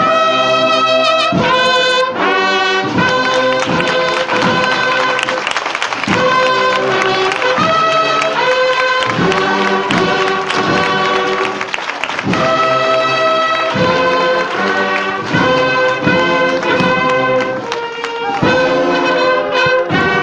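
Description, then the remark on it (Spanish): The Inspiración cornet and drum band plays a loud, steady processional march in a Holy Wednesday street procession under a cloudy sky, bright sustained horn chords over rhythmic drum beats, continuing without pause and with no voices. “Y escuchamos a la banda de conate tambores de la inspiración.”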